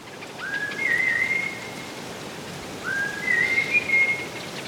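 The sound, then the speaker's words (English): Two clear human whistles, each rising then holding a steady melodic tone, repeated with a short pause between: a Hadza honey-hunting call to honeyguide birds, played back from a recording through a speaker in Tanzania, over a soft rain-like hiss in the background. “what we found is that in Tanzania, honey guides appeared 82% of the time that Hadza whistles were being played back.”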